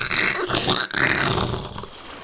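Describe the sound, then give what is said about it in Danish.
A fishing cutter runs aground amid churning waves: a loud, continuous rush of water and grinding noise, with a brief break partway through and no voices. “Men de kunne ikke længere styre båden, og efter ikke super lang tid, så stødte fiskekutteren på grund”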